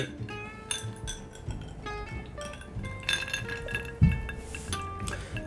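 Several glasses clink together in a toast in a bright, ringing flurry, their tones overlapping and sustaining, with a few softer taps and a slightly louder knock near the end.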